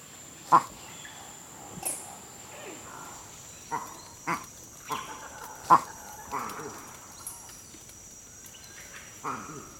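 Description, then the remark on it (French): A male Campbell's monkey gives a 'waku' eagle alarm call, used for an eagle attack with less imminent danger: a series of short, abrupt hoarse calls spaced about a second apart, clear over a steady forest hiss. “Ça, c'est le waku, le waku, c'est aussi une attaque d'aigle, mais avec un danger moins imminent.”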